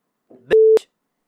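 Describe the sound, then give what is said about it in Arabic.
A single steady electronic beep tone lasting about a quarter second, loud and pure, cutting over a brief burst of voice just before and after it. “هذه ما يحتاج لها طوط هذه”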